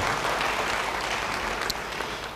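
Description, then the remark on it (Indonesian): A crowd applauds steadily, a dense, even patter of many hands clapping at a constant loudness throughout, with no voices on top. “Saudara, apakah saudara rindu hari ini mengalami hal-hal yang mengherankan, siapa yang rindu beri tepuk tangan bagi dia.”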